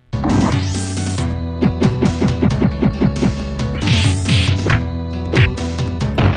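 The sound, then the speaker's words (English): A run of punchy, bursting video game attack effects as a boss charges up a gauntlet and flames erupt from the ground. Roaring whooshes repeat in quick succession over steady tonal game music, loud, with no one talking. “Like he charges up the gauntlet and then like a thing of flame comes out of the ground and makes a bunch of woof woof, woof noises.”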